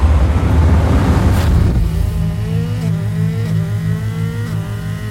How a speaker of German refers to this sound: Die Straße geht jetzt schnurgerade durch die Wüste. Ich trete aufs Gas und will sehen, ob ich das Auto so schnell kriegen kann, dass wir abheben.